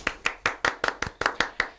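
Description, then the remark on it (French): A single person clapping steadily, about nine sharp, crisp hand claps in under two seconds at a brisk, even rhythm, with no voices over them. “Ça va être notre clap de la semaine.”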